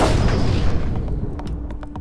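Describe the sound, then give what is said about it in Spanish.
A loud revolver gunshot booms and rolls away into a reverberant tail, followed by a few sharp, quieter metallic clicks and cracks near the end, with no one speaking. “Las preguntas del universo las respondo a balazos.”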